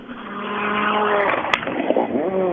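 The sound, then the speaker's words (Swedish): A rally car roars by at high speed, its engine note sweeping in pitch with sharp revving and a brief burst around the midpoint, loud and continuous throughout. “Ja, den här bilen gick ju fort förra helgen eh, när eh, Jerker Axelsson körde den i, eh, i Säffle.”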